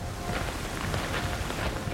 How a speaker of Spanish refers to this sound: Llueve, apenas escucha algo más, pero hay un silencio extraño oculto bajo la lluvia, afirmó el sargento Torres.